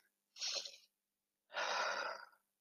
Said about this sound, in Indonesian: Yang kedua, berhenti sejenak pas selesai satu kalimat nih. Dan dan ini bukan bukan setelah selesai satu paragraf ya, tapi setelah selesai satu kalimat, buat tarik nafas